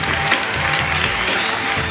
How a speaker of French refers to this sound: Applaudissements.